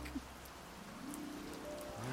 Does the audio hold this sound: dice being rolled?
no